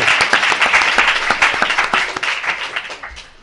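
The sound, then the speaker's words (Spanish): A crowd applauds steadily for a volunteer who is coming up to the microphone, many hands clapping in a dense, crackling wash that holds fairly loud for a few seconds before fading out at the end. “Venga, pues eh, le damos un fuerte aplauso, ¿no?”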